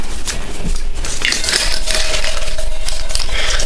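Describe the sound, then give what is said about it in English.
A slip of paper is handled, crinkling and rustling steadily for a few seconds with small sharp crackles and no voices. “Why is this paper like this?”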